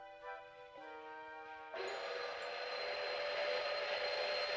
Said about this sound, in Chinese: 小熊皮皮又去当火车司机。可他开的火车实在太慢了，火车慢吞吞地向前爬，就像蜗牛一样慢。